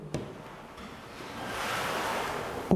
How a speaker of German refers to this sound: durch das Geräusch des Windes, da wurde es mystisch, fast schon unheimlich.